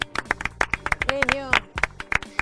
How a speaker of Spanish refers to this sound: Bueno, estamos, vamos a aplaudir al chef que está ahí.